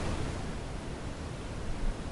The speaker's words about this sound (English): As this happens, the image seems to warp and we abruptly cut to static.